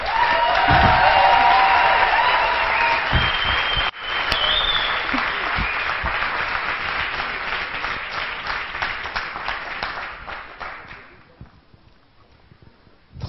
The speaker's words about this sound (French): Alors, vous pouvez taper sur les tables, utiliser vos pieds ou vos mains, mais faites du bruit